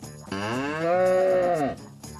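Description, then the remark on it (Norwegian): A cow being milked by Vendela Kirsebom lets out one long, deep, loud moo, swelling briefly before it trails off, with no talking around it. “Og hvorfor sitter én million nordmenn og ser på at Petter Pilgaard tømmer utedoen og Vendela Kirsebom melker ei ku?”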